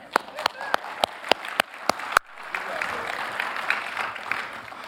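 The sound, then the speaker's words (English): A handful of sharp, evenly spaced claps quickly swell into steady applause from a whole audience, a dense, lively patter of many hands with faint voices mixed in. “Give him a hand.”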